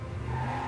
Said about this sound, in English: That's the sound of a Hemi V8 engine with e-torque.